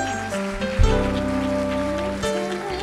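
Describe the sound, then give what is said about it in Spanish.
Dense, steady applause from an audience, a continuous crackle of many hands clapping for about three seconds, with sustained musical tones humming underneath. “No, pero y los aplausos.”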